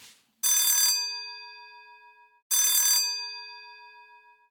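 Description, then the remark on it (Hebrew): A doorbell rings twice at a home in a suburb of Krasnoyarsk, Siberia, on a winter morning at ten o'clock, each a sharp buzzing burst that leaves a bright metallic tone slowly fading out, the second ring coming about two seconds after the first, loud. “סיביר, חורף, בוקר, שעה עשר, אני שומע צלצול בדלת.”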